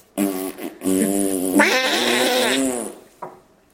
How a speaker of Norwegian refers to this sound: hør lyden. Her er introen til baksnakk.